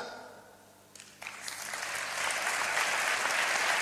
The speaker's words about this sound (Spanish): Público rompe en aplauso ante estas bellas palabras